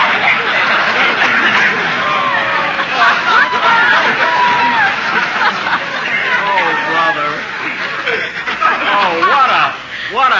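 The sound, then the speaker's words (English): A lively party crowd chatters continuously, many overlapping voices blending into a dense, steady hubbub with scattered chuckles and snickers rising from the mix. “Let's join the crowd.”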